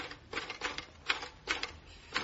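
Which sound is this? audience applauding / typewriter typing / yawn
typewriter typing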